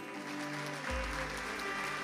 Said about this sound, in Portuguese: Dê um forte aplauso a Ele.